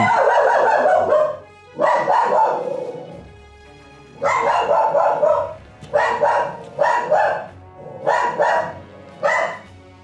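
A dog barks loudly in a series of long, insistent bursts, the barks coming in rapid clusters with short pauses between them and no one talking; the dog is barking through a door at someone walking up the stairs.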